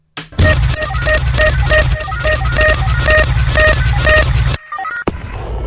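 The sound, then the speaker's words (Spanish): A loud electronic roulette spin sound effect from Now Music Radio's musical roulette, which randomly picks songs from 2002: rapid, evenly repeating bright beeps over a pulsing low beat for several seconds, then an abrupt stop and a short different tail. “saben, en Now Music Radio tenemos eh, el honor de contar con esta ruleta musical que nos va lanzando al azar ciertas rolas de ciertos momentos del 2002.”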